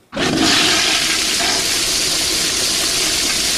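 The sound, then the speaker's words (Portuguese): A toilet flushes with a sudden loud rush of water that starts abruptly and keeps roaring steadily, a broad hissing wash, with no voices. “Ou se você não gosta de jeito nenhum, não aprova, você mandar a descarga.”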